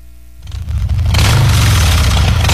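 A Harley-Davidson motorcycle engine rumbles low, then revs hard and swells into a loud, sustained roar, continuous, with no one talking.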